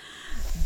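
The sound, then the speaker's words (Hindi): A voice imitates a loud sneeze by the cartoon character Hingo Bingo, sneezing Smartsy Fartsy out of his nose: a quick breathy intake followed by a short, forceful snort-like burst, over in under a second. “जोर से हिंगो बिंगो ने छींक मारी और स्मार्टसी फार्टसी को अपनी नाक से बाहर निकाला”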